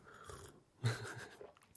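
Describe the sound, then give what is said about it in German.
Someone slurps hot Bad Heilbronner cold-relief tea in one drawn-out sip, followed by a few soft mouth and swallowing noises, with no talking. “Ich entschuldige mich jetzt schon für das Schlürfen.”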